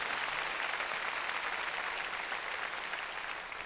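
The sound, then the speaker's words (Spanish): A church audience claps hands loudly and steadily for the Lord, a dense wash of overlapping claps lasting several seconds before easing slightly at the end. “Démosle palmas fuertes a nuestro Señor.”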